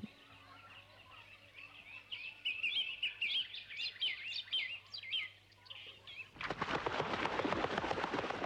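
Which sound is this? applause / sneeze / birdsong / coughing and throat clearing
birdsong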